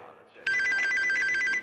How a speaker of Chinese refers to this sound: 有太多悄悄话想说给你听听，想要给你打电话，随时 ring ring。